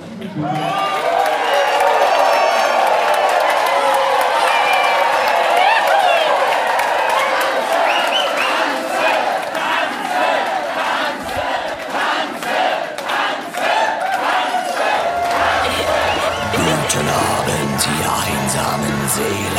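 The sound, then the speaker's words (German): A large crowd at a 2010 audio drama event, recorded as background noise for an audio drama series, roars and shouts battle cries together, a loud, sustained wall of voices with rhythmic bursts of yelling and some clapping, energetic throughout. “Und das Label Europa brauchte für die Serie Dragonbound ein paar Menschenmassen.”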